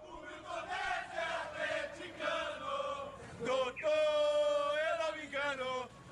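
A huge stadium crowd chants in unison, its massed voices rising and falling in rhythmic phrases, then swelling into a loud, sustained roar of cheering near the end.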